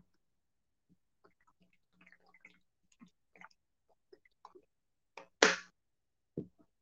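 Someone takes a sip of water: faint wet clicks and small mouth sounds, then a louder gulping swallow and a short breath. No one speaks.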